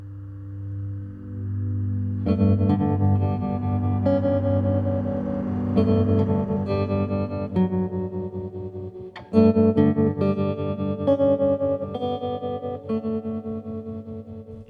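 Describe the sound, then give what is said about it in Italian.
A calm acoustic guitar plays a gentle melodic theme over sustained low notes, with unhurried plucked phrases ringing out clearly and softly throughout, no voices present. “La prima come state ascoltando, affida il tema a una chitarra acustica che risulta sì calma, cogliente, dolce”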